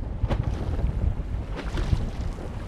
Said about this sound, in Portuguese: Depois de navegarmos por uns 40 minutos, chegamos perto do Recife. A gente acabou de chegar então aqui nos recifes de Rio do Fogo, né? Que regionalmente são conhecidos como parrachos de Rio do Fogo.